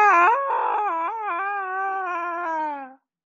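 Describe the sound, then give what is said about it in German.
A dog named Rufus gives a long, grunting yawn: about three seconds of loud, whiny, tonal vocalizing that wavers and slowly drifts lower in pitch before cutting off abruptly. No one talks. “Rufus gähnt grunzend.”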